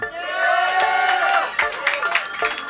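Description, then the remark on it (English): An audience at an on-stage joke battle cheers loudly for a few seconds, many voices whooping and shouting together with scattered sharp claps mixed in, the noise swelling steadily without pause. “When I ask, you have to be louder than that.”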